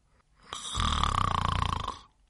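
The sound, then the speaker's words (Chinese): A voice imitates a single long, loud snore of a sleeping father bear: a low rattling rumble with rapid fluttering pulses that swells, holds for about a second and a half, then stops. “哼，坏爸爸居然睡着了。”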